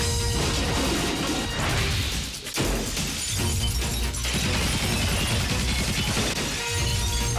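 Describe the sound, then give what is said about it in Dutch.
Loud, dense crash effects from the trailer of the film Maniac Cop 2: shattering and smashing impacts pile up continuously, with a brief dip before the clamor surges back at full force. No voices are heard. “U hoort hier uh, de trailer, het geluid van de trailer van de film die eh, Rosa en ik gisteren gezien hebben.”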